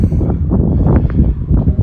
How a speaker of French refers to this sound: Je suis désolé s'il y a du vent. Hein, je... vois les micros qui captent beaucoup là. Et je pense que vous devez vous prendre des grosses rafales de vent.